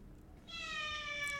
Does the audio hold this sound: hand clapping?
no